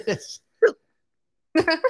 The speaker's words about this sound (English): Oops, and I got the hiccups. He's killed the audio. And I've got the hiccups because he's sucking lemons.